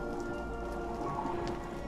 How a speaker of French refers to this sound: Il faisait un temps horrible. Le vent glacé de décembre projetait la pluie sur les vitres dans le grand salon de réception.